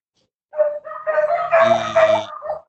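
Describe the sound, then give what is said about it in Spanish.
A dog howls in long, wavering tones broken by a few rough barks, loud, lasting about two seconds after a brief silence with no other sounds around it. “Oh perro Fantini, ¿eh?”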